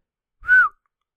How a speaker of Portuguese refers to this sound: Sabem aquelas pessoas que metem assim os dois dedos na boca? Pá, para mim isso é exibicionismo. Claramente, não precisas disso para fazer o assobio. eu só sei fazer este assobio, que é.